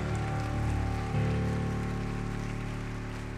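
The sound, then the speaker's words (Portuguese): At a church service, a large crowd claps steadily and loudly for the Lord, a dense, sustained wash of applause with a sustained musical tone underneath, holding strong for the whole stretch without a break. “Aplauda o máximo que você puder ao Senhor.”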